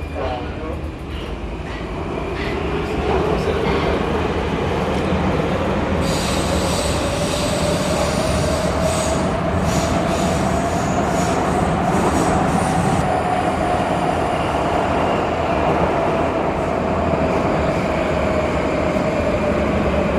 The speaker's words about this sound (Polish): Praskie metro brzmi prawie tak samo jak warszawskie metro. E, jest tak samo głośne, mm, ale ponieważ, tak jak powiedziałam, jeżdżę nim naprawdę bardzo, bardzo rzadko, więc pomyślałam, że skoro już wsiadłam, to wyjmę mikrofon, żebyście usłyszeli